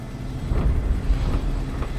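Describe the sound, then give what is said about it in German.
A helicopter approaching a volcanic vent drones steadily, its deep engine rumble filling the air with faint rhythmic pulsing and swelling slightly louder as it approaches. “Als der Hubschrauber sich nähert, kann Chris die Hitze spüren, die von ihm ausgeht.”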